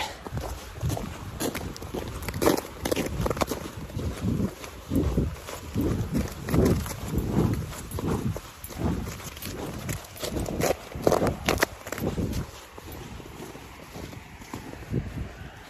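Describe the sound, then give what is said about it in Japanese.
Steady crunching footsteps on snow and ice, fairly loud, in an even walking rhythm with soft outdoor wind behind them and no talking, on the Toyohira River embankment at 7 a.m. on a Sunday morning. “まあ雪のとことか氷のところとか、いろいろあるんで、いろんな音がありますので。”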